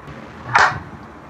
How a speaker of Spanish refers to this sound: Ya. Solo fue un aplauso, ¿no?